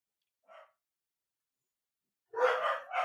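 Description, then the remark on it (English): Dogs bark: one faint, short yip early on, then after a pause a loud burst of two rough barks in quick succession at the end. “Well, I'm gonna let the dogs bark for a minute.”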